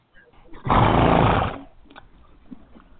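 A single loud horse snort, a rough, breathy blast lasting under a second, rising sharply and then fading, with only quiet background noise around it.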